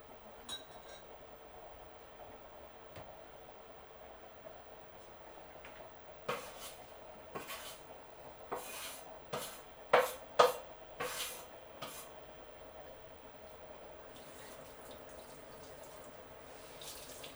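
Kitchen sounds of cooking on a winter day: a tap runs with a steady hiss while dishes clink, about eight sharp, bright knocks bunched in the middle, the loudest near the centre. No one speaks.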